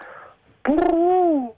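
A single low, hollow pigeon coo, a steady tone just under a second long that begins with a brief rough burst and fades out, with no talking.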